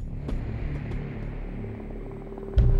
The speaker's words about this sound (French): En 1995, un hélicoptère vole au-dessus des montagnes, au cœur de l'Afghanistan.